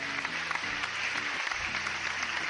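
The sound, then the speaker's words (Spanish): An audience on a programme applauds a family's story steadily, a dense wash of many hands clapping at a fairly even level throughout, with faint tonal voices or cheering murmuring underneath. “Aplauso para la pues historia.”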